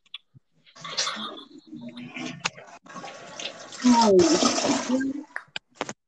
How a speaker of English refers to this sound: was that you flushing the toilet? Yeah, I'm done.